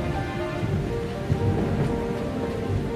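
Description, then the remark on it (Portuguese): Heavy rain pours down steadily in a dense, hissing wash, with a deep rumble of thunder rolling underneath throughout. No voices are heard. “Estava chovendo muito, com raios e trovões que ecoavam no castelo.”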